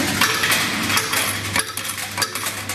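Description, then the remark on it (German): Loose coins in pockets, change from shopping at a vending-machine shop on Donnerschwer Straße in Oldenburg, jingle and clink continuously, bright metallic chinks in quick irregular bursts, fairly loud, with no voices. “Ja, meine Taschen sind jetzt voller Kleingeld.”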